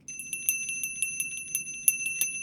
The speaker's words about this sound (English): No! I'm going to ring it! I want Diana back! I'm going to ring the bell!